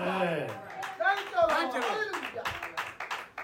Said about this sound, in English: Yes, Don't be afraid to shout, to, to clap your hands in the church. To shout unto the Lord with a voice of triumph.